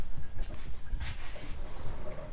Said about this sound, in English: Hopefully the people can't hear that coffee pot too bad bubbling in the background. All right. Just make them want some coffee.